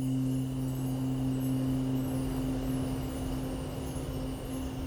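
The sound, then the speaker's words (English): A steady, low whistling wind drones on in the distance, a constant hollow rush with faint sustained tones and no voices or other sounds. “in the far distance, you can faintly hear the whistling of the winds.”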